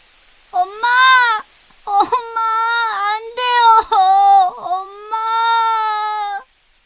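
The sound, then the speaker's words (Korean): A voice wails loudly in several long, drawn-out sobbing cries, rising and breaking between bursts, continuous for about six seconds, like an exaggerated, performed bout of crying: the son tree frog in a told story weeping after his mother frog dies. “아들 청개구리는 목 놓아 울면서 말했죠.”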